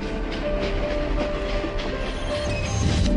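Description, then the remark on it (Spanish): A train rolls steadily along the rails with a continuous low rumble and faint rhythmic clatter, fairly loud throughout, with no voices. “Próxima parada, Kodama Station. Tu viaje hacia la cultura y el conocimiento.”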